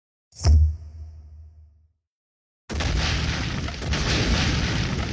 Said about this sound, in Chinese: 就在这时，外围忽然响起了巨大的爆炸声。无数泰坦神族被炸向空中，正在屠杀龙族的泰坦神族勇士纷纷停手，抬头望向身后。